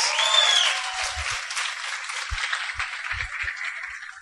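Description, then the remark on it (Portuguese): An audience breaks into sustained applause, a dense wash of clapping hands that stays fairly loud for several seconds, with a few low thumps mixed in. “Salva de palmas.”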